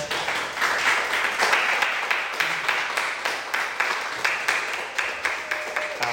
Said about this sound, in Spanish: Dale otro aplauso a Dios.